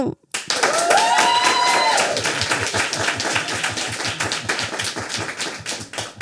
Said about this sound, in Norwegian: Hvis dere syns det var eh, aller mest jøss, så klapper dere nå.